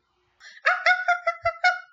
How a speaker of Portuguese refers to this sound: E nesse momento, o Chihuahua que estava com a mulher pula dos braços dela e começa a latir. Solta o latido aí.